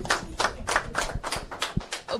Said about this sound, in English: Ah, voilà. On applaudit